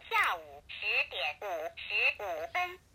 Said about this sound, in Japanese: あのめちゃめちゃ中国の電卓なの分かったと思うんですけど、まあ、このモードごめんなさいこのモードで音が出るって